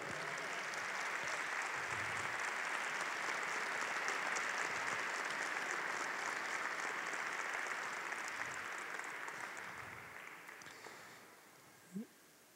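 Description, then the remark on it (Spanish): A crowd claps steadily in dense, sustained applause given to God, holding for about ten seconds, then thinning and fading out, with a brief voice at the very end. “Dale un fuerte, fuerte aplauso a Dios.”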